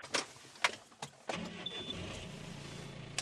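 A few sharp clicks, then the engine of a 4.5-tonne tractor turns over and settles into a steady, low rumble, heard from inside the cab, barely louder than in a truck.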